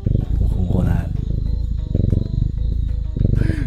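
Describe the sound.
A cat purrs right up against the microphone, a loud, continuous low rumble with a steady pulsing rhythm that lasts the whole time. Faint voices may be present underneath.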